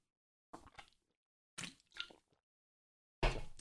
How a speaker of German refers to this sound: Dafür trinke ich erstmal was aus meinem Dirty. Prost.